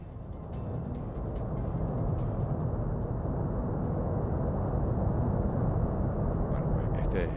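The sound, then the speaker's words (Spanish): A volcano erupting on the island of La Palma, seen on a TV broadcast with four or five separate vents: a continuous deep roaring rumble that holds steady and loud for several seconds, with faint crackling textures on top, as if played through a television. “pon el, el volcán si puedes.”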